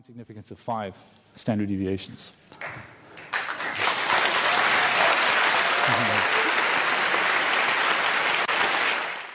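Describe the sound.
A large audience bursts into sustained applause that swells and holds steady for several seconds, following a few brief spoken phrases at the start, with a voice faintly heard beneath the clapping, at CERN at the moment of the announcement of the discovery of the Higgs boson, 4 July 2012.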